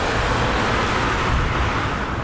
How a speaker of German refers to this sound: Wahnsinn, wie viel Verkehr da ist, oder? Cool. Das ist ein so kleiner Ort, mhm. aber wieder. Da donnern es durch die Autos. Da donnern es echt durch.